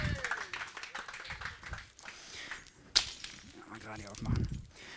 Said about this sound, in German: Yes, euer Applaus.